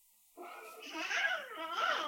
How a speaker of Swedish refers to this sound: och där fick vi lite barnskrik med i podden också. För det var ja, någon kul. som kom in i min studio.